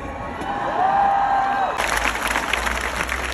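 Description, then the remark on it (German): A large crowd of more than 2000 people at a live reading in Hamburg roars with cheers and whistles, then bursts into dense, sustained applause that fills the space, loud and continuous with scattered whoops rising over it. “Wie viele Leute sind das? 2000? Mehr.”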